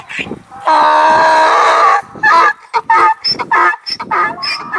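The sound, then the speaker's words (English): A donkey brays loudly as it takes a deep breath and stands up on its feet: one long, harsh sustained heave followed by a run of choppy, rasping honks that gradually trail off. “Uzair's resurrected donkey took a deep breath and made a loud bray as it stood on its feet”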